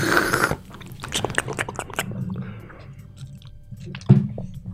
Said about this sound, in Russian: Бывает такое, что некоторые звуки просто раздражают. Вот если Бывает там такое. чавкающие. Мне это тоже не нравится.